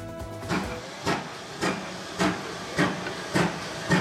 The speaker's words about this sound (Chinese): 蒸汽火车冒着腾腾白烟缓缓进站，已经百岁的英国老火车年末佳节出动，载着三百名乘客，内部摇身变成声光派对现场。